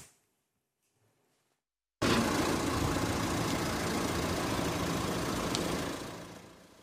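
After two seconds of silence, the engine of a stationary car starts idling with a steady, low rumbling drone, fairly loud, holding evenly for several seconds before tapering off at the end.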